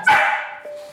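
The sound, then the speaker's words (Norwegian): A single loud dog bark rings out, its sharp onset trailing into a fading, slightly whiny tone: an insistent bark from a dog demanding attention. The dog sits beside its owner working at a home office, puts a paw on the owner's thigh, and finally barks. “Når man sitter og jobber, så setter hun seg ved siden av legger en labb på låret ditt, og så til slutt så kommer det der bjeffet, da.”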